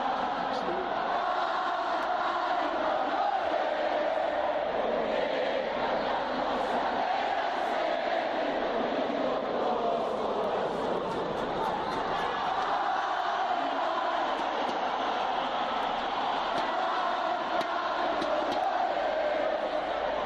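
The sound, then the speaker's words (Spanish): A huge stadium crowd sings the traditional Mexican song Cielito Lindo together, thousands of voices merging into a loud, continuous wash with a swaying melody and scattered shouts rising above it. “Bueno, el inconfundible cielito lindo eh, que frecuentemente se escucha en los estadios cuando celebramos los mexicanos eh, algún triunfo eh, deportivo, ¿no?”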